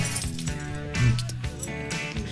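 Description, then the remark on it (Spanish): A large collection of keychains jangles and clinks together in a radio booth in a continuous metallic rattle, bright and busy, with a slightly louder shake partway through and no voices. “yo soy fanático de los llaveros. Tengo un montón de llaveros siempre.”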